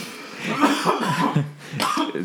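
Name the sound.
cough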